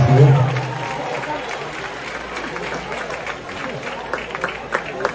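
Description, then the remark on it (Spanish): A studio audience applauds a guest journalist steadily for several seconds, a dense wash of clapping that holds at an even level, with a brief voice near the start. “Fuerte aplauso para Ana”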